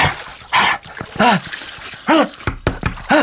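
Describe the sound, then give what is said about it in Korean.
A person pants heavily and loudly while washing their face in the bathroom, with rhythmic breathy, partly voiced gasps coming in uneven bursts about every half second, apparently acted out by the speaker. “아, 왜 화장실에서 왜 이렇게 헉헉대면서 씻어?”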